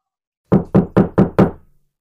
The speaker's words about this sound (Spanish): Pero pasada la medianoche, se volvió a escuchar que tocaban la puerta.